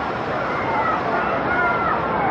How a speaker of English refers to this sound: Rain still coming down here at DC Stadium.